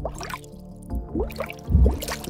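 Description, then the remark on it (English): Water gurgles and bubbles in uneven low surges under a steady airy hiss, rising to a louder churning burst near the end, heard on opening the door to the Fireman's Passage at the bottom of a ship, with no voices. “When you open it, you hear a hissing and a gurgling.”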